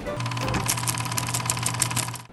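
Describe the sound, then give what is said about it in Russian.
A kitchen mixer runs steadily in a pastry studio during work, its motor giving a constant whirring hum with a fast, rattling mechanical buzz over it; no one speaks. “Это своего рода антиподкаст, поэтому не удивляйтесь шумам миксера, различным репликам, да и вообще ничему.”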